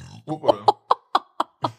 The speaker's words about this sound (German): Da schluckt er nur. Ach so, rülpsen.